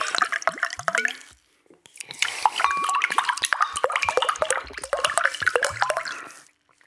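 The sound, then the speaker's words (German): Water splashing and trickling, with irregular drips and gurgles running continuously for several seconds, briefly pausing before resuming; no one speaks. “Was jetzt hier plätschert, ist Wasser.”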